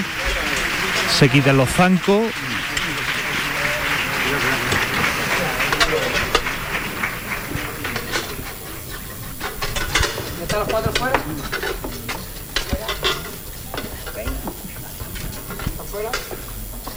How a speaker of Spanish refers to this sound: Y el aplauso